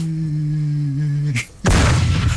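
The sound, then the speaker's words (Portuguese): A steady low hum gives way to a brief crack and a short silence, then a loud, premature explosion erupts into a harsh, roaring blast that fills the remaining second. “Foi prematuro, é, pá, isto foi precoce.”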